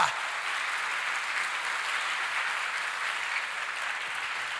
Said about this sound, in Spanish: ¿Cuántos le dan un fuerte aplauso a esa palabra?